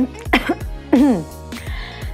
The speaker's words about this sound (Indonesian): langsung tersedak sup dan batuk-batuk.